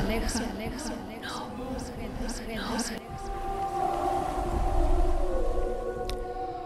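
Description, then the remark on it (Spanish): Eerie, wordless singing of the mythological sirens at the ship of Odysseus (Ulysses): several wavering voices swoop up and down in repeated glides, then settle into sustained, haunting tones over a low rumbling backdrop. “Odiseo, al que los romanos llamaron Ulises, aparece en este fascinante cuadro en el preciso momento que logra vencer el canto de las sirenas.”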